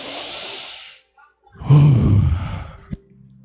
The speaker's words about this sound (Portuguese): Muitos estão a um passo da morte, você está vivo aqui respirando. Dá uma respirada aí, faz assim.